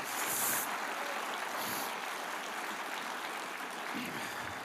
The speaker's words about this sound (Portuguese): Dê para ele uma forte, forte salva de palmas.